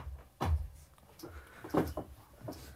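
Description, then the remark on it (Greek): A door opening, with a heavy thump from the latch and frame, then a couple of lighter knocks and rattles as it swings. No one speaks. “Και σε ανοίγει ο στην πόρτα.”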